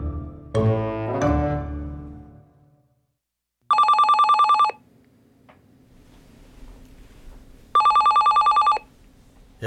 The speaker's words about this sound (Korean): 야 전화 안 받냐?